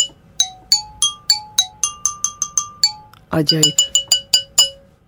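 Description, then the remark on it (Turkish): Pieces of an ordinary household tile, broken into four and strung on a string at different lengths, are struck in a quick run of bright, ringing clinks, each tone chiming and decaying, with a brief spoken remark in the middle before more chiming notes. “İp de onların titreşmesine izin veriyor vurduğun zaman ve böyle bir ses çıkıyor.”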